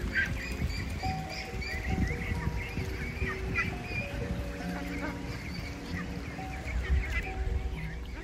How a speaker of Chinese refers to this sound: 甚至是我们途中有经过一个养鸭。嗯，或者是养鹅的农场，听到那些小鸭、小鹅啊在呱呱叫的声音，都觉得好疗愈哦。也一并给大家听听看哦。